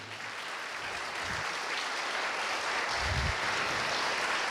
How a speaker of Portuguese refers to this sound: Vocês todos, dê um aplauso para Jesus.